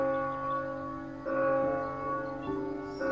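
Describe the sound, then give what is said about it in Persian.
A church bell rings with several overlapping strikes, each leaving rich, sustained metallic tones that hum on between hits. It sounds moderately loud and steady, with no voices. “هرگاه ناقوس کلیسا به صدا درآید همه مردم به سوی کلیسا روان شوند”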